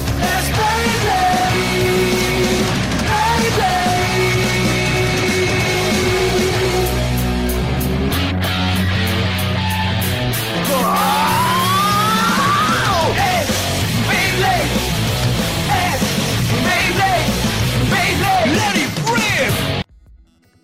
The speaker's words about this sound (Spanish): Y eso fue la intro de Beyblade